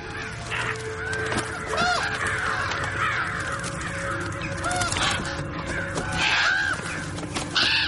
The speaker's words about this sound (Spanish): En el norte, a varios cuervos se les ponen los ojos en blanco durante unos segundos. Alzan el vuelo desde un árbol y se alejan de Invernalia.